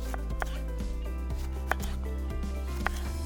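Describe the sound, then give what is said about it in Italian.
A knife dicing vegetables into cubes of equal size on a cutting board, a handful of sharp, crisp taps at uneven intervals, heard over a steady bed of soft background music. “Un piccolo consiglio, per evitare che abbiano bisogno di tempi di cottura differenti, Taglia le verdure a dadini della stessa grandezza.”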